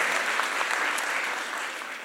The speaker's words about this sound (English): That's powerful. Oh, yeah, clap for, yeah, clap for that. That was a powerful point.